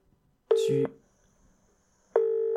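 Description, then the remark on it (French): Two loud, steady electronic telephone tones separated by a pause of over a second: a dialing-style beep, then a ringing tone, clear with no voices, as a call is placed to a landline phone. “Et peut-être peut essaye de l'appeler sur son téléphone fixe qu'elle doit avoir.”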